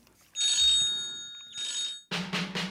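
A mobile phone rings in two bright, electronic trilling bursts with a short pause between them, clear. A few noisy rhythmic pulses follow right after.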